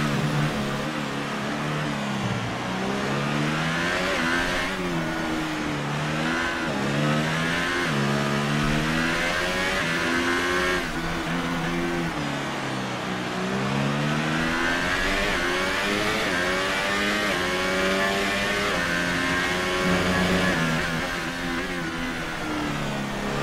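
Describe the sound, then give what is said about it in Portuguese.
A race car engine roars steady, its pitch repeatedly climbing and dropping through gear changes as it laps the track during a race, loud throughout with no voices. “Tá bem equilibrado o carro.”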